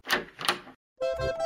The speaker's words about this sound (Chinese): 扣扣扣，烦恼来敲门。